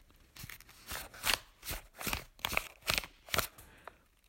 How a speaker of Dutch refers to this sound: Dus dan vouw ik er een. En het kan van allerlei soorten papier zijn.